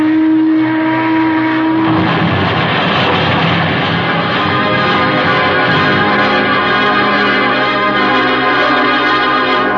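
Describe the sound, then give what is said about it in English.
A passenger steamboat, the Boston boat, draws near, opening with a brief steady low horn tone before a loud, continuous churning engine rumble fills the rest, unbroken, with no voices. “But just as I reached it, I heard the Boston boat again.”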